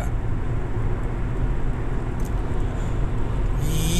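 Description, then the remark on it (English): Steady low rumble of road noise inside a moving car used as a mobile car studio, a constant droning hum with faint hiss above it, rising slightly near the end as the engine or tires pick up. “is Saturday, December the 14th, and I'm coming to you live and loud from the mobile car studio with today's episode.”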